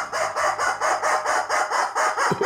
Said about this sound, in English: And the rubber chicken says.